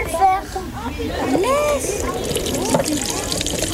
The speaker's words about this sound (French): Vous allez prendre le bac qui est vide, mettre les grilles dessus et ensuite vider par un des coins, un des petits coins, pour pas en renverser. Et vous allez commencer à verser. Attention.